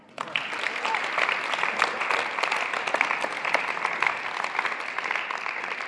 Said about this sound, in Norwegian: Jeg kan godt klappe for det.